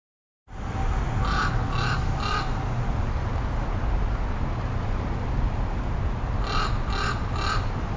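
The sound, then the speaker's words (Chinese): Crows on a road caw in two quick sets of three harsh, rasping calls, one early and one near the end, over a constant roar of road traffic. “哦，对了，这路上还有很多乌鸦。”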